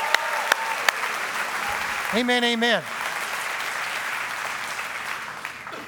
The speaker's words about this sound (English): Amen. Come on, let's give him a hand clap. Man, we're excited for you.